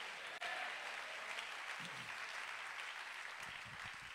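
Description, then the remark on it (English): An audience claps their hands in a steady, dense wash of applause that holds for the whole stretch, with a few faint voices calling out underneath. “If you believe that, clap your hands and shout amen.”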